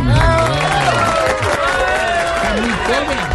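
An audience bursts into steady, dense applause, with many voices cheering and whooping over the clapping throughout the few seconds, loud and sustained without a break.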